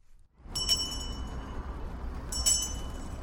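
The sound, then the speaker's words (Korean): A Salvation Army charity kettle hand bell rings in two bright, metallic bursts, with a long shimmering tone between them, over a steady murmur of busy year-end street crowds on Myeongdong street in Jung-gu, Seoul. “구세군 자선 냄비의 종소리, 들떠있는 시민들의 모습, 그리고 관광객들, 연말의 풍경을 고스란히 접할 수가 있는데요.”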